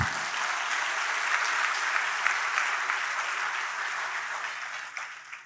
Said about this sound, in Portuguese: Louvado seja o nome do Senhor. Vamos aplaudir ao Senhor, querido.